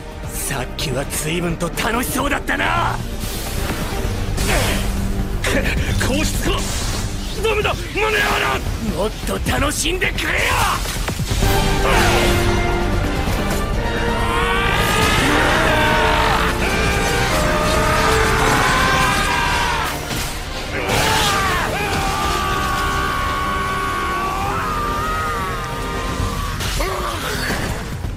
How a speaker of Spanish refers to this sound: Vale, pues de pocos habréis enterado porque aparte de que son muchos gritos, muchos cortes, muchas espadas, muchas patadas, está en japonés.